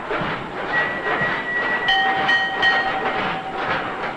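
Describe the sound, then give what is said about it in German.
Loaded mine carts rumble steadily along rails onto the top of a blast furnace at an ironworks, where they are emptied, with metallic wheel squeals and clattering over a dense, continuous roar. Fairly loud, with no voices. “Oder hier da hört man, wie die gefüllten Loren auf die Gicht kommen.”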